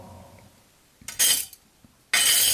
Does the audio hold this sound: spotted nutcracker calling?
no